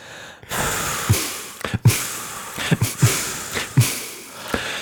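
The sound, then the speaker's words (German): A voice imitates a beat with rhythmic, breathy snorts and sharp inhales, a loud string of short huffing bursts at a steady, uneven pulse, with no talking; a second person snorts along and improvises over the beat, called 'snort jazz'. “Du musst mitschnaufen.”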